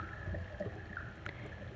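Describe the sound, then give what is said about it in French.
Rainwater trickles and gurgles steadily into the sewers, with a few soft drips standing out now and then against the low, continuous wash of flowing water. “L'égouttement de l'eau. La pluie qui doucement remplit les égouts.”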